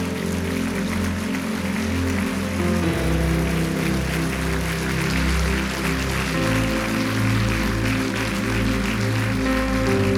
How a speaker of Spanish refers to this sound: ¿Cuántos dicen amén? Póngase de pie en un aplauso fuerte al Señor Jesús.